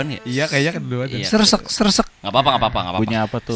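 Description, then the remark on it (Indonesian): Several people chat casually while one voice briefly mimics a train running on its tracks, saying "seresek seresek" in a quick, repeated rhythmic vocal sound amid the conversation. “seresek seresek Punya kereta, apa?”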